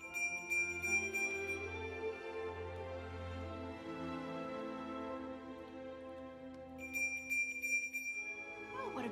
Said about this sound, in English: beautiful bell.